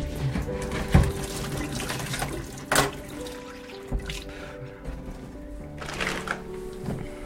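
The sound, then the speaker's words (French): Water runs steadily into plastic 5-litre jugs, a continuous gurgling pour broken by a few sharp knocks and clatters as the jugs are handled, with no one speaking. One jug is filled with hot water for washing dishes, one with cold water for cooking. “on, remplit les bidons de 5 litres”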